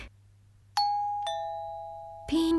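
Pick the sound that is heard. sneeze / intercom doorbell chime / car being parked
intercom doorbell chime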